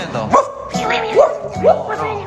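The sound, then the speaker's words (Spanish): A human voice mimics a dog barking, giving three short, rising yelps spaced unevenly over a couple of seconds, fairly loud against a steady low background hum. “entonces Beto y sus amigos, intentaron por todos los medios comunicarse con aquel hombre que solía manejar el camión de helados. No, no, te entiendo, perro, no te, entiendo.”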